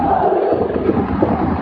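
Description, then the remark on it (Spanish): The crowd at the Vita Argenta arena at a Baskonia versus Real Madrid basketball game cheers and chants "Madrid, Madrid" together, a dense, steady roar of many voices that stays loud throughout the short stretch, with no single speaker standing out. “Parece que el público de la Vita Argenta le empieza a despertar y ya empieza a animar. Gritos de Madrid, Madrid.”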